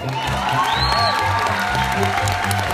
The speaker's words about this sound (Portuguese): Todo mundo bateu palmas, adoraram a ideia, achando que aquela seria a melhor solução para os problemas deles.